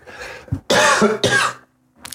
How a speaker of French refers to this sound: Excusez-moi, c'est infernal, c'est un accident industriel. Tousser à l'antenne, ça ne se fait pas, et puis ça, ça rend les gens hypochondriaques.